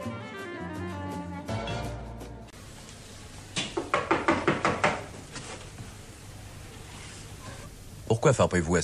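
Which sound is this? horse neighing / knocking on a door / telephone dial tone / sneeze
knocking on a door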